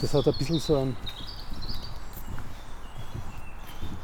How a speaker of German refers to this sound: Dennoch können wir aus dem Geäst der Bäume die eine oder andere gezwitscherte Arie vernehmen. Das ist ein Rotkehlchen zum Beispiel.